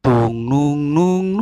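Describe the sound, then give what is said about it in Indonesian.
A single voice sings a short, sustained melodic phrase in nasal syllables, imitating a violin playing a song intro, loud, with a few smoothly connected notes. “Intronya kan gitu, oh, iya. pakai biola.”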